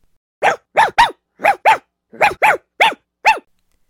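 A dog barks loudly, about nine sharp, gruff barks, several in quick pairs, with short silences between and no voices.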